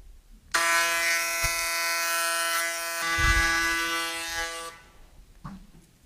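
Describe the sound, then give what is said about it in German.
A loud electric hair clipper buzzes steadily for about four seconds with a bright, harmonic whine, with brief low thumps and rustling as it moves along the sides of the head, then stops. “So, ich muss jetzt ja auch noch die Seiten rasieren und das ist auch so laut.”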